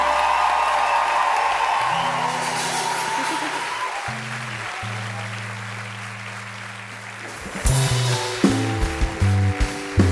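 A crowd applauds loudly in a sustained, dense wash of clapping, joined by low musical tones and a rising stinger toward the end as the applause continues.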